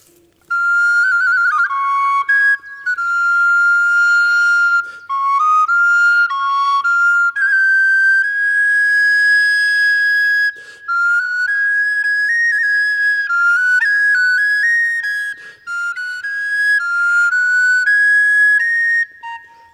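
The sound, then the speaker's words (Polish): A solo flute plays a popular early 17th-century song melody about the nightingale, preserved in Jacob van Eyck's collection Der Fluyten Lust-hof: a lilting, ornamented melody in a bright high register, moving in steady stepwise phrases with short breaths between them; no voices are heard. “to może tak dla Towarzystwa Ptaków fragment popularnej e, na początku XVII wieku melodii piosenki o słowiku zachowanej w zbiorze Jakoba Fanajka Der Fleiten Listhoff.”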